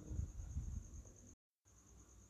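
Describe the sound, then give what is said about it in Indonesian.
Crickets chirp at night in a steady, unbroken high-pitched trill, faint, over a low background rumble; a natural sound from the open outdoors right beside a bedroom. The sound cuts out briefly partway through. “Ngomong-ngomong kalian dengar suara ini gak sih? Jangkrik gak sih? Ini bukan ini ya uh, efek ya tapi benar-benar natural sound jadi tepat di samping ruang uh, kamar tidurku benar-benar uh, alam bebas alam bebas”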